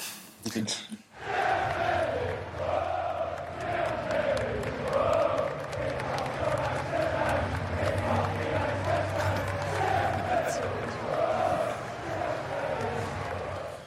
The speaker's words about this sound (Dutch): Dus het kan vijf minuten slecht zijn en dan merk je de onvrede. Maar één goede actie of één goede tackle en ze staan gelijk weer achter je. Dus heel emotioneel publiek, maar wel leuk en een eigen lied. Laten we even luisteren.